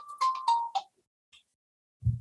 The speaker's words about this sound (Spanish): O sea, eso, amigos, fue el celular